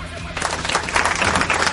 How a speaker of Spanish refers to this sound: Cuando yo cuente tres, van a aplaudir todos, ¿eh? Y cuando cuente tres otra vez se van a callar. Una, dos, tres.